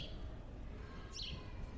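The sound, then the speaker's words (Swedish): A single short bird chirp rings out partway through, a quick high trill over a steady low outdoor rumble outside a church, with no one talking. “Jag pratar med fågeln alltså.”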